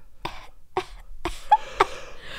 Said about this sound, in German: Auch dieser kleine, schwache Huste.